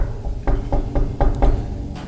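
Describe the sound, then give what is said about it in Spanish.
Five or six firm knocks on a door in a steady, evenly spaced rhythm, moderately loud, with no talking, just a low background hum; the knocking is performed as a sound effect. “Pero pues en eso les tocan la puerta. A ver, voy a hacer el efecto de sonido.”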